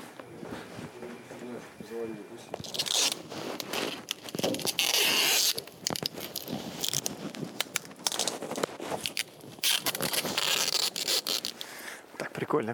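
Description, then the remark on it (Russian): Sticky tape is pulled off a roll and wrapped in repeated loud, crackling tearing bursts, with rubbing and handling noises between pulls; faint voiced sounds appear briefly at the start. “о, ну, какой-то что-то скотчем перекручивай.”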